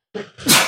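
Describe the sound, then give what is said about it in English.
A single loud sneeze: a short breathy intake followed by a sharp, hissy burst that ends abruptly. No talking during it. “bless you.”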